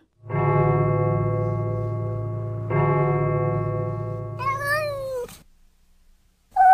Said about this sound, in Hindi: बिल्ली जैसी चीख डॉक्टर घोषाल का चीते का बच्चा होगा